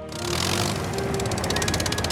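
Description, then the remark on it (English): The petrol engine of Kevin, a yellow four-wheeled mobile crane with a long crane arm and hook, runs steadily with a rough, rumbling drone, and a fast rhythmic clatter grows in the upper range during the second half. No voices are heard. “He has four speedy wheels and a long crane arm with a hook at the end, and a petrol engine that sounds like this.”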